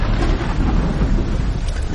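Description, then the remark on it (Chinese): Heavy, steady rain pours down on a rainy night with a deep, continuous rumble of thunder rolling underneath, loud and unbroken for the whole stretch, with no voices. “冰冷的雨水滴答滴答打在身上”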